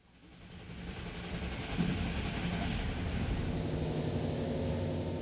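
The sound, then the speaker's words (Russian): A train heading east through Westphalia, Germany, rumbles steadily along the tracks, a broad continuous roar with low rhythmic clatter beneath, swelling in over the first second and then holding loud with no voices. “Поезд продолжает катиться на восток.”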